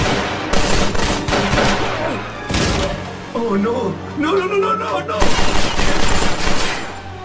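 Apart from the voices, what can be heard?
gunshots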